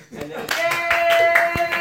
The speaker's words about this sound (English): Clap, yeah.